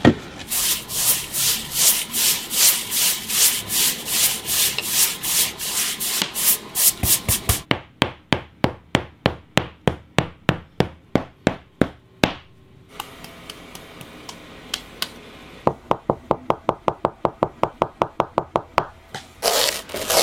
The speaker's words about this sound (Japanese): 今朝は伝統工芸品江戸表具のいい音それではお聴きください。